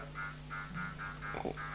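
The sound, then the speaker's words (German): The Atari version of the Pac-Man video game sound effect: a quick, evenly repeating electronic chirp over a steady low buzzing drone, fairly quiet and without any voices. “Das ist der Sound von Pac-Man übrigens.”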